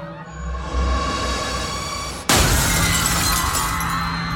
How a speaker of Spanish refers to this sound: Entonces, alguien pensó en el ventanal y arrojó una silla contra él.